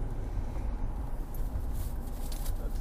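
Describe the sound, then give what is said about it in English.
A steady, low rumble of road and engine noise fills a car cabin while driving to work, continuous and even throughout, with faint higher hiss and no one speaking. “So uh, so this is uh, so I just got in the car and I'm going to work”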